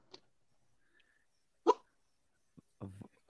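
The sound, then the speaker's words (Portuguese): A small dog, Meg, wanting to get out of a bedroom, lets out a few short, hiccup-like yelps spaced irregularly over a few seconds, one sharp and louder in the middle, the others quieter and clipped. “Isso é um soluço, é um cachorrinho pequeno.”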